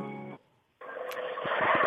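A phone call being placed from a Korean radio show to a listener: a brief buzzing telephone tone, a short silence, then loud crackling line noise with a few clicks as the connection comes through. No one speaks.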